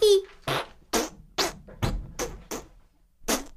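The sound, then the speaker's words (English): A quick series of about eight loud fart noises, blown by mouth, sputtering one after another at a steady, bouncy rhythm, starting with a brief squeaky whine. “it's fart noise time.”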